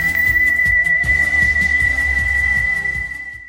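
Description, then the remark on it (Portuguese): A whistle is blown in one long, steady, shrill note that holds throughout, loud, over a rhythmic low chugging beat, with everything fading slightly at the end. “De repente, ele toca seu apito e parte rumo ao desconhecido.”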